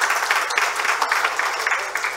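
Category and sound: crowd, audience applauding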